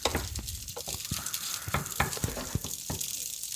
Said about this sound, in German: Ich muss erstmal mal ein bisschen brutzeln hier.